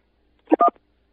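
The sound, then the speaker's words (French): Two short electronic beeps in quick succession, telephone keypad button tones on a France Télécom phone menu, each a brief steady mid-pitched tone, standing alone against quiet. “Pour une meilleure écoute, appuyez sur la touche 1.”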